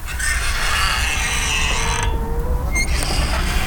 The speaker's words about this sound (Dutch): Als ik een uh, eh, springveer hoor, dan denk ik niet alleen aan, meteen aan mijn oma... maar dan zie ik ook meteen die hoordeur die altijd met die krakende veer dichtsloeg als je daar zo eh, naar binnen ging.